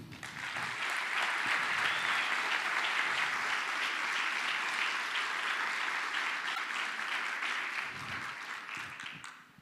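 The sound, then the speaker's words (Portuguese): An audience applauds Jesus after a prayer, a dense wash of many hands clapping that holds strong for several seconds before tapering off near the end. “Eu não costumo falar isso, não, mas quem pode aplaudir Jesus por isso?”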